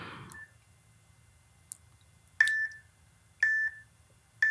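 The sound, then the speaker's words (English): Two short electronic timer beeps, each a steady tone with a sharp attack, spaced about a second apart after a couple of faint clicks, clear over a quiet low hum with no talking, marking the time limit for answering questions. “You will hear beeps as we go through these questions, um, and you'll know when your time is up because it will beep.”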